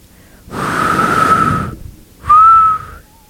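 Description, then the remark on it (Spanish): A person imitating someone whistling: two breathy whistles, the first long and steady, the second shorter, louder and gently rising, with a short pause between them and no talking. “Dice mi mamá que estaban sentados en la sala y que de repente escuchan que alguien chifla.”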